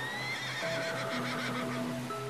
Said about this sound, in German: Du wirfst einen Blick zu den Islandpferden und hörst auch schon das Wiehern deines Hengstes.